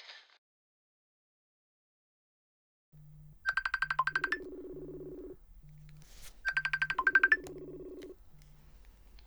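A phone ringtone plays two bursts of a bright, trilling melody over a steady low rhythmic pulse, fairly loud, with no one speaking.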